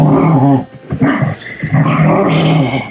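Dogs growl and bark, a rough, rumbling growl giving way to several sharp, overlapping barks over about three seconds, loud and agitated.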